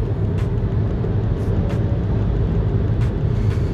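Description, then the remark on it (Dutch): Steady low rumble of trucks passing on a road near Brummen, a continuous droning roar broken by a few brief hissing swells as vehicles pass. No one speaks. “En uh, hier bij uh, voor Brummen even die weg wat vrachtwagens passeren.”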